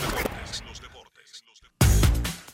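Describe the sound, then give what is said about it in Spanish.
A short burst of audience applause for the Dominican team and its staff fades out, then after a brief lull a loud surge of clapping and crowd noise returns, with voices mixed in. “Yo quisiera que, dando la bienvenida, agradeciéndole a todos ustedes por estar aquí, le demos un fuerte aplauso al equipo, al staff del equipo dominicano.”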